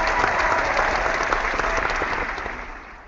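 Steady applause from the audience of Por Falar em Corrida, a dense wash of many hands clapping at once, loud and sustained before gradually tapering off toward the end.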